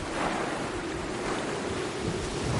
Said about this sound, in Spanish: La lancha de Santiago y Pilar está perdida en alta mar.